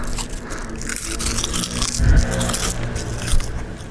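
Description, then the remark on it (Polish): Crackly crunching of someone biting into a 'pan Szokula', a buttery French puff pastry with a double strip of chocolate inside: a steady rustle of breaking crust with louder crunches near the middle and again toward the end. No one speaks. “Oczywiście ciasto francuskie ma taką bardzo chrupiącą skórkę. To się delikatnie odrywa.”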